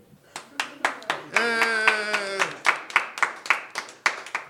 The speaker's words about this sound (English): An applause break is almost as good as laughter. In fact, some people prefer it.